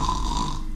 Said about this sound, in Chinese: 这就是打呼噜的声音。